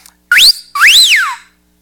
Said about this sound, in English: We always whistle.